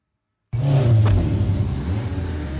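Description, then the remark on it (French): After a brief silence, a 406 car's engine bursts in loud, revving hard on a race circuit, its pitch climbing and dipping over a steady roaring rumble. No one speaks. “sa 406 décident de tester les Allemands sur leur circuit.”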